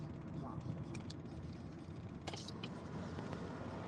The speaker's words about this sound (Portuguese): Olha lá, lá, um caminhão, um caminhão.